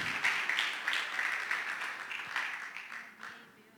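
An audience breaks into steady applause: many hands clapping at once in a dense, crackling wash that holds fairly loud for a few seconds, then tapers off toward the end.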